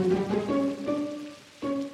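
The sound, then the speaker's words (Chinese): Heavy pouring rain blowing into a residential community's guard room, a steady, dense hiss, overlaid by sustained low musical tones that fade briefly and then swell back in. No one speaks. “被吹进警卫室的就只有那滂沱大雨。”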